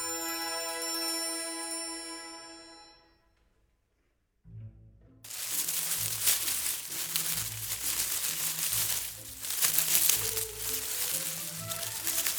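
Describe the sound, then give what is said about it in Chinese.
A short tonal jingle fades into a pause, then leaves are shaken in a loud, continuous crinkly rustle that swells and surges for several seconds, with no voices. “这是摇动叶子的声音哦。”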